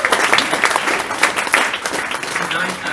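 People clap together in a steady, dense round of applause, fairly loud and continuous for a few seconds, with faint crowd murmur mixed in, applauding the food served at an outdoor cookout.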